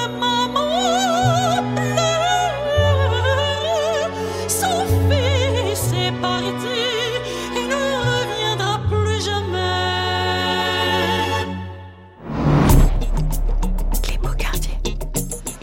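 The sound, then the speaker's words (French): An operatic voice with wide vibrato, sampled from a Russian opera, sings sustained notes over a deep, steady bass line, loud and upfront; near the end the music cuts out briefly and a heavier beat kicks in. “entendu le, son d'opéra là dans le fond, c'est une reprise du Prince Igor, un opéra du russe”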